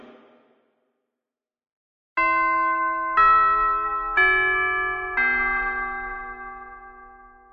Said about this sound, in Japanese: ということで、チャイムも鳴りましたので、そろそろ活動のまとめをしていきたいかと思います。